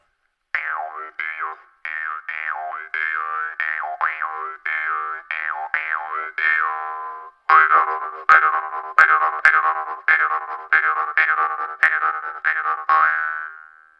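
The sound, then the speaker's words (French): A jaw harp twangs steadily for about fourteen seconds, its buzzing drone bending in wah-like sweeps, then struck in sharper rhythmic plucks near the end. It's fairly loud, with no voices. “Alors attention, une guimbarde.”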